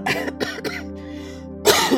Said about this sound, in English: So y'all just forgive me for coughing in y'all ear.